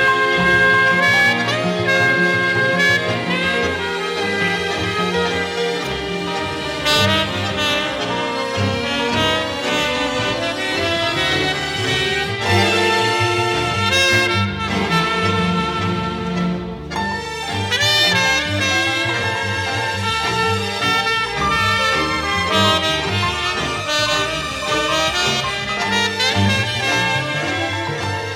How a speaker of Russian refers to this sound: Этот сломанный танец замечательно озвучен дерганной и напористой мелодией неправильного танго